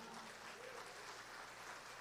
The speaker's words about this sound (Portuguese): Se você está aplaudindo o pastor Valério, eu não preciso nada disso, mas se é para Jesus, dá o melhor aplauso e o glória a Deus que ele merece.